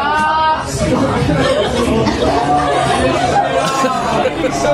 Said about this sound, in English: They're jeering and wow, booing.